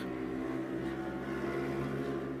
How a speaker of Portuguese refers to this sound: Passou tá uma moto aqui, acho que é, é uma moto voadora, porque fez barulho na minha janela. Eu moro no quarto andar.